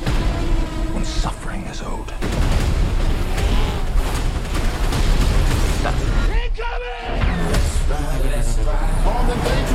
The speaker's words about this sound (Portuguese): Explosões, uma Michael Bay, fica, Michael Bay ficaria muito feliz.